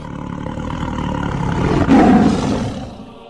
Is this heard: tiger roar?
yes